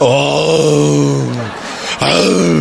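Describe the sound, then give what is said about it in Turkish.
A person imitates a jackal call, letting out a long, loud, wavering "oo" howl, then briefly pausing before starting another drawn-out cry. “balta sesi bu çakal sesi bu ya.”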